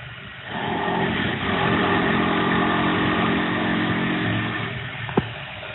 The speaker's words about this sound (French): Donc, c'était les travaux, mais cette fois-ci en face de chez toi. Oui, oui, c'était le ravalement, je crois, de, de la copropriété.